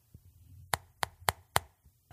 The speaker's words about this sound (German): So wusste er, dass Janine Lehrerin ist und eines Tages klopfte er ganz vorsichtig an Janines Fenster.